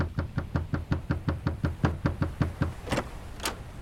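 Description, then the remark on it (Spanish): Rapid, steady knocking on a wooden cabin door aboard a ship, as a frightened maid knocks on her employers' door: about a dozen even raps in quick succession, followed by two sharper, brighter knocks. Fairly loud, with no voices. “Atemorizada, llama a la puerta de sus señores.”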